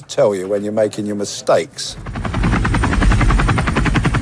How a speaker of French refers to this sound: Vous entendez là, Renault, un hélicoptère Apache, domaine de prédilection d'Harry lorsqu'il s'engage dans l'armée euh, britannique.